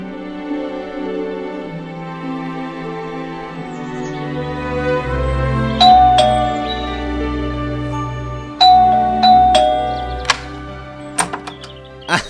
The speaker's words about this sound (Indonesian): Benar saja, baru saja aku berucap dalam hati, tiba-tiba bel rumahku berbunyi.